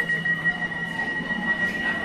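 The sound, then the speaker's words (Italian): A metro train rumbles steadily in a station on the opening day of the metro line, with a sustained high-pitched whine over low mechanical droning and a constant wash of ambient noise, loud. “Buongiorno, voi siete qui per l'apertura della metro?”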